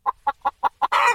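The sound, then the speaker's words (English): A chicken clucks five times in a quick, even rhythm, then lets out a louder, longer squawk at the end. “The first ingredient in Swanson chicken broth sounds like this.”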